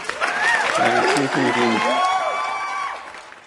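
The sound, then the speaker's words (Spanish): A crowd cheers and whoops loudly, with steady clapping underneath, in a dense burst of applause given in farewell to a former co-host of the program. The applause fades slightly after about three seconds. “Un aplauso grande para Lu, que siempre estuvo recopado.”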